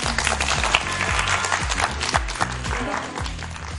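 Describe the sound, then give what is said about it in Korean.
Sustained applause from an audience on a JTBC program, honoring a lecture just given: a dense, steady wash of many hands clapping for several seconds, with music playing underneath. “정말 의미 있는 강연 들려주신 정혜혁 선생님께도 큰 박수 보내드리도록 하겠습니다.”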